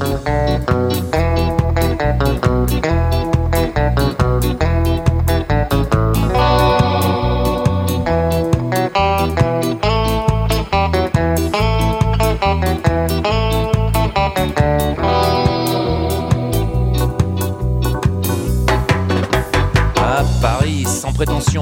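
A loud, full-band rock track with a lead guitar solo soaring over driving drums and bass, steady and dense throughout, with no voices.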